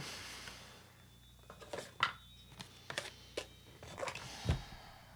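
household object, wind chimes tinkling

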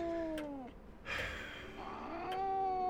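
animal, cat meowing

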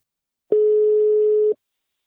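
signal or alarm, telephone ringback tone

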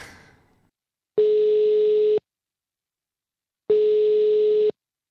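signal or alarm, telephone ringing tone

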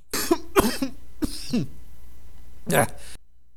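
human body sound, cough

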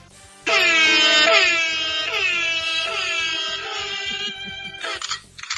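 sound effect, air horn sound effect

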